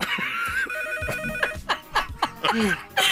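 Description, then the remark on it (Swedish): A telephone rings with a steady electronic trill, clear, while brief bursts of voices and a bit of laughter break in around it. “Eh, vi har telefon.”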